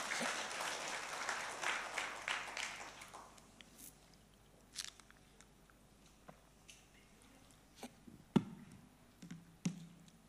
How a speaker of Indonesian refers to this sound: Sudah selesai khotbah. Tepuk tangan bagi Tuhan Yesus.